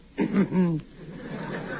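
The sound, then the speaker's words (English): A man clears his throat once, a short, low, gravelly rasp lasting about half a second, followed by a faint hiss of room noise. “you can cough your head off”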